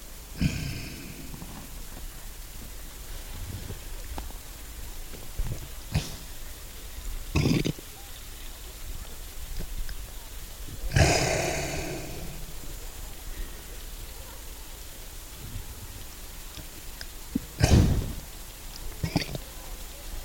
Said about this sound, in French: Voilà, bah là je vous fais entendre euh, la respiration d'un renne qui est juste à côté de moi. Et au loin, on entend eh bien, un traîneau qui est traîné par des rennes.